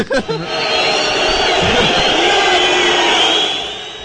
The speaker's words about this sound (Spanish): Perdón, fight para mí, ponme ahí los abucheos.